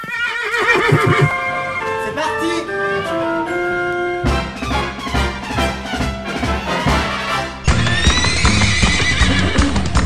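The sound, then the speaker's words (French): A loud horse whinny rises and falls in stepped, musical-sounding tones, followed by a steady rhythmic clip-clop of hooves and another bright neigh, all blended into a jingle-like backing with no talking, as the jingle of the show Ponyphone (Polyphone 16, season 2). “et Cheval de Troie pour sabotage musical ou hors-spiel, disque jockey, avoine ou à vapeur, pur son et croupe de rock pour requin moyen, un polyphone pour le moins bien monté, un pour tous, tous purins, Polyphone 16, saison 2, Ponyphone”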